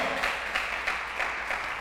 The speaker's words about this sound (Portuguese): Dá um aplauso ao Senhor pelo amor de Deus.